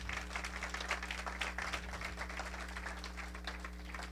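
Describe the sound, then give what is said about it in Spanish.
An audience applauds for Christ, a dense wash of many hands clapping at an even level throughout, with a low steady hum running underneath and no talking. “Dele un aplauso a Cristo, mi amado hermano.”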